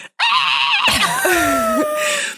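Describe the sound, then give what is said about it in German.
A voice imitates a child's loud, shrill scream, a sustained high-pitched shriek lasting about two seconds, intense, with no talking around it. “Und mein Kind hat sich hingestellt, sofort einmal laut so.”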